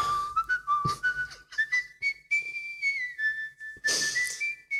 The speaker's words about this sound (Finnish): Tuossa äh, vihellät hyvin. Kiitos.